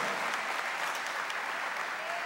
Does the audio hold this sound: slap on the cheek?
no